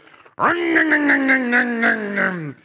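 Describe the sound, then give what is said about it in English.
A voice imitates a chainsaw starting up, giving one loud, sustained, buzzing growl of about two seconds with a rhythmic revving pulse, heard alone. “Somebody jumped out at me with a chainsaw.”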